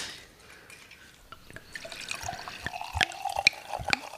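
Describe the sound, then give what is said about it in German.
Wine from the Weingut Kana winery is poured into glasses after the bottle is opened, a gurgling trickle of liquid punctuated by a few bright glassy clinks, growing fuller toward the end, with no one speaking. “Hm, den machen wir jetzt auf, hm.”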